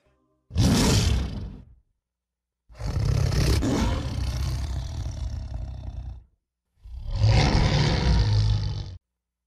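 animal, lion roaring

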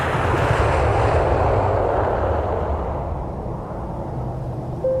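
vehicle, airplane engine

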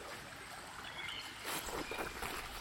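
nature, flowing stream water

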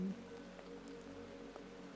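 nature, soft rain falling

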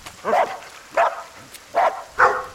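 animal, dogs barking

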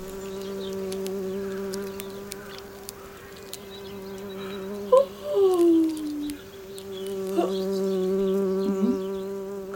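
insect, bee buzzing

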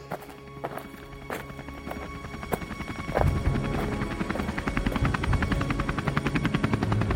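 vehicle, helicopter landing

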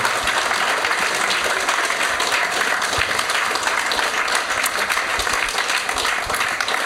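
crowd, audience applause

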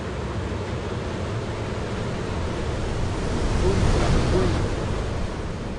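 nature, ocean waves breaking

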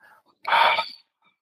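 human body sound, ujjayi breathing

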